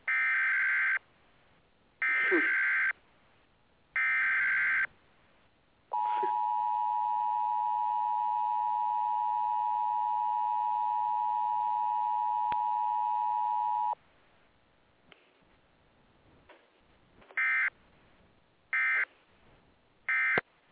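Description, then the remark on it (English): An emergency alert broadcast warning tone from radio or TV: three short harsh digital bursts, then a long steady two-tone electronic drone lasting about eight seconds, followed by a few more brief data bursts. Loud, with no talking. “Remember, y'all, if you hear those tornado sirens going off or this familiar sound from the radio or TV”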